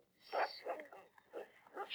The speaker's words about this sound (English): You hear that monkey, bro? Ran away into the jungle.